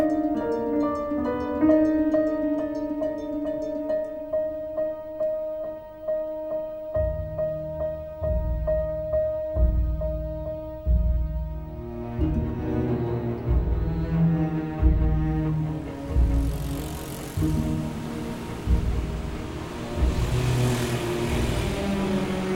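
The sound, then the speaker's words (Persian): Busy street traffic on Ferdowsi Street below the Istanbul intersection, at the corner of Bank alley, recorded beside the former Ferdowsi store building, now Bank Melli's administrative section: a steady droning engine hum gives way to rumbling vehicles and revving motorbikes passing by, with a hissing rush of traffic building toward the end. “حجم وسایل نقلیه موتوری و البته تعداد افراد پیاده با این چیزی که دارید در این صدا میشنوید حتما بسیار متفاوت بوده”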